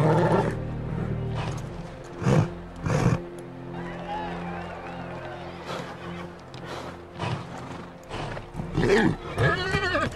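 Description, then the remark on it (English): Several racehorses, in a five-horse field including Secretariat and Sham, whinny and snort while hooves clatter and bang in short bursts against the metal starting gate as they are loaded in, with a low crowd murmur beneath. “Horses now loaded in.”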